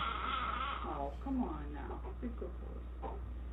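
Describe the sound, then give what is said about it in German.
A baby cries in wavering, whimpering wails that rise and fall in pitch, continuing steadily for a few seconds at moderate loudness with a faint low hum underneath. “Er ist ein äh, Baby. Ein, ja. Baby.”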